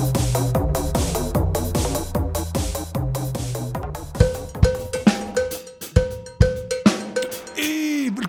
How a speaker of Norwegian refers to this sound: Da er det en ny sang her.